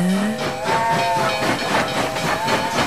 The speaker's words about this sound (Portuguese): Comboios e locomotivas acertaste.